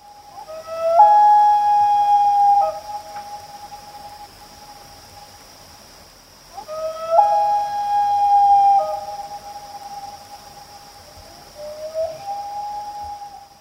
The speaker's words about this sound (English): So this is the sound of two loons, and they're calling to each other across a lake. So my question is, in which of these places would you be most likely to find a common loon?